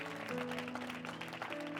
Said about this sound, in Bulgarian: О, знам, че можете да ръкопляскате по-добре от това. Знам, че можете, знам, че можете, знам, че можете.